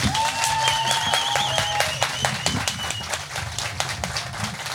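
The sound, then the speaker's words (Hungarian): A record-size crowd at an audience meet-up greets a rapper with a dense burst of steady applause, with a high whistle and cheering voices rising over it before the clapping slowly thins out. “ezen a közönség találkozón, úgyhogy csak annyit mondok, hogy …, és lássuk a reakciót.”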